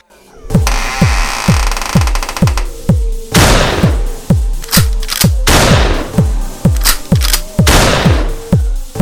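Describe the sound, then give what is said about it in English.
A rapid, steady barrage of gunshots, each a loud booming thump with sharp cracks, firing roughly four times a second for about nine seconds without pause or voices. “Wow, I am a really bad shot.”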